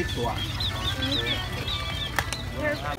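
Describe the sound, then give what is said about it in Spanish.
Small birds, bought from street vendors to be set free, chirp busily, then a couple of quick fluttering bursts of wings flap away as they are released, over a steady rumble of street noise and indistinct voices. “Aquí venden los pajaritos para que sí, los liberes. Estamos comprando bastantes para liberarlos.”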